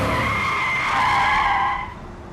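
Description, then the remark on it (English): A car's tires squeal in a loud, sustained skid lasting nearly two seconds as the car pulls over to the side of the road, then the screech cuts off abruptly as the vehicle comes to a stop, leaving a faint rumble. “Move to the side of the road! Pull over!”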